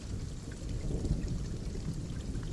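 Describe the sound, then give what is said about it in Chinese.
Heavy rain pours down in a steady, unbroken hiss with a deep rumbling undertone, holding a constant loudness throughout with no voices present. “你所在的那个城市，是不是也在下雨？”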